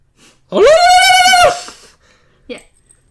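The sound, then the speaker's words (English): A single loud, high-pitched ululation that lasts about a second, with a rapidly wavering, trilling quality. It ends abruptly and is followed by a faint short vocal sound. “Okay, is a long, wavering, high-pitched vocal sound resembling a howl with a trilling quality.”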